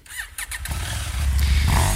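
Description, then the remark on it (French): A motorcycle engine cranks with a few sharp clicks, then catches and roars up into a loud, throaty rev that holds steady. “Il est un son comme celui de ma propre moto.”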